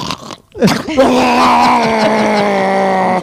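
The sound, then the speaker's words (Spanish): A voice imitates loud snoring that sounds like an ambulance siren: after a brief pause, a rough, rising vocal groan swells into a sustained, steady wailing tone held loud for over two seconds. “Ay, no, la, gente, la, gente, va a pensar, uy, cambiaron el sonido de la ambulancia que no, era antes.”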